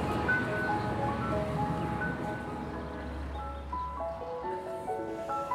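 Steady street traffic on Sigrid Undsets vei fills the scene, a constant wash of noise with a deep engine rumble swelling as a vehicle passes. Faint melodic tones drift over the top, and no one speaks.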